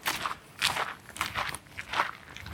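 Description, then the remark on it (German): Someone crunches a hard candy, a series of sharp, brittle cracks repeating in an uneven rhythm with no talking. “Und zum Abschied werde ich noch ein bisschen auf meinen Bonbon rumknüpfen.”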